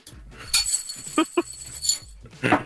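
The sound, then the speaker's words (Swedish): A jar holding 88 dry macaroni rattles as it is shaken, a few short, uneven bursts of clattering and clinking with quiet pauses between them. “Får man höra skaket?”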